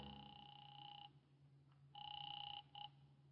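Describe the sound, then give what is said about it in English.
A telephone rings on the line during a call to Harlan Matthews's home number, a steady electronic trill in two bursts with a brief pause between, heard at moderate volume over a low hum, with no one speaking. “A phone book in the corner drugstore showed two numbers for Matthews his home and his business. I tried his home.”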